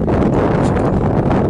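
Steady wind blows outdoors, a loud, constant rushing roar with a low rumble and a slight airy hiss, holding an even level throughout with no voices.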